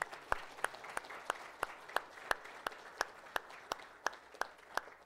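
A round of applause: a dense wash of clapping with one set of sharp, crisp claps standing out in a steady, even rhythm, about three per second, moderately loud throughout.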